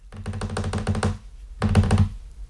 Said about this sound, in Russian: В дверь тихонько постучали. Скорее даже не постучали, а поцарапали об нее ногтем.